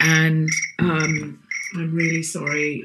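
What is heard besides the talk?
phone ringtone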